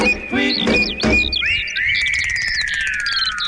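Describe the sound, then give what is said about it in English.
Whooping cranes call loudly, a few sharp rising whoops followed by long, drawn-out bugling notes that overlap and slowly fall in pitch, with no talking. “The sound of whooping cranes there.”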